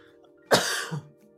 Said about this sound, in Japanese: ごめんなさいね。ちょっと今日もまだ咳が出ておりまして、全、あの全回復はしておりませんけども